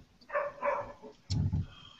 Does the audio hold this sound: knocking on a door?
no